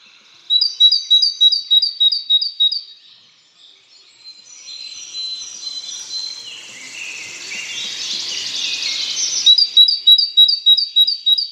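great tit song

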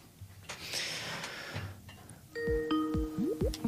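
outgoing call ringing tone

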